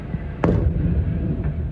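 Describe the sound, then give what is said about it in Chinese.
A sharp, loud explosion at a burning propane storage facility near Phoenix Sky Harbor International Airport in Arizona, USA, bursts out of a constant low rumble, followed by a fainter boom about a second later, with no voices. “当地时间二十号傍晚，美国亚利桑那州凤凰城的天港国际机场附近，一处丙烷储存厂发生多起大型爆炸，火势猛烈。”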